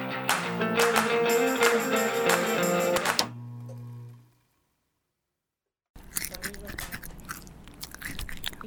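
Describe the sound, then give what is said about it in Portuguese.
Music plays and fades into silence, then crunchy chewing and mouth sounds start right against the microphone, a loud, irregular stream of crackles and smacks. “Eu tava mastigando o microfone”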